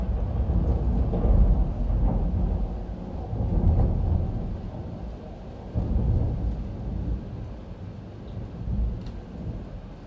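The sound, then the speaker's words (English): Deep, rolling thunder rumbles loudly through the whole stretch, swelling in several heavy surges, with a steady hiss of rain underneath and no voices. “I'm pretty sure there's about to be a really big thunderclap.”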